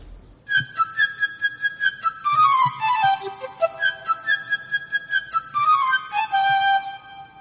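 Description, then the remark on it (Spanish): A flute plays the little bird's theme from a musical tale presented by the Argentine Pablo Pampín: a quick, chirpy melody of high trills and rapid fluttering notes, with swooping downward runs, over soft orchestral accompaniment below, with no voices. “El tema del pajarito es interpretado por la flauta.”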